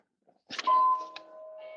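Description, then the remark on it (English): A doorbell rings for a delivery with a ding-dong chime: two sustained electronic tones that linger and fade, at moderate volume, with a faint click or rustle at its start. “The bell's just gone.”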